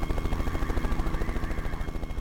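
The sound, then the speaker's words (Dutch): A military helicopter rotor, of a helicopter used to carry a sniper, thumps in a steady, rapid rhythm, loud, with a constant engine roar underneath and no voices. “Bij veel eh, acties die we uitvoeren aan het KST komen we met helikopters.”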